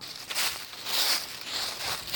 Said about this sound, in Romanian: Dar știi ce am făcut ca să compensez? Mm. Am înnotat în frunze.